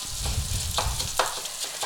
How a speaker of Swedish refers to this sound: Jag har fyra deciliter arborio-ris som liksom får steka med löken här i nu. Och ah, så här, i, i någon minut.